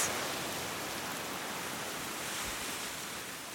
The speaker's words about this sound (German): Es ist echt Wasser aus allen Richtungen. Gerade es regnet und aus dem Fluss kommt das Wasser und über die Felsen kommt das Wasser auch runter.